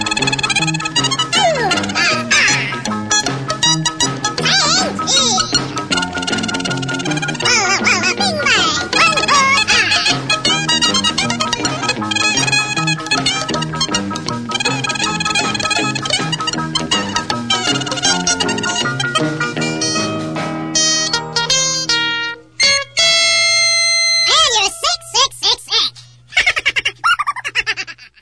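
A bouncy novelty rock-and-roll song plays loudly throughout, with squeaky, sped-up cartoonish voices over a driving band; the music thins into choppy bursts near the end.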